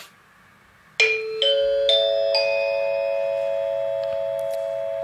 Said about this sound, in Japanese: えー、っとえー、っとどれだっけあそうだ放送チャイムを押すんだはいということで気象情報いきます